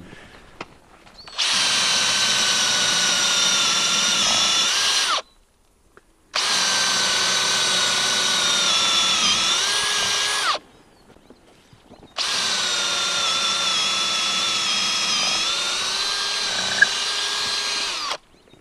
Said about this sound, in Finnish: Ja nyt me porataan reijät ja työnnetään ne tonne, tonne tota noin, puuhun sisään. Jännittävää puuhaa.